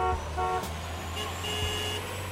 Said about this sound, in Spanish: pero también en todo aquello a lo que le pondríamos atención si no tuviéramos que oír a diario y constantemente el ruido generado por los coches.